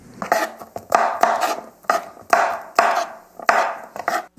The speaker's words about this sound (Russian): И грибы нужно будет нарезать на мелкие кусочки. Наверное, можно сказать, что на квадратики по Эм, ну, в длину не больше, чем, наверное, где-то пол сантиметра, между половиной сантиметра и сантиметром, но не больше.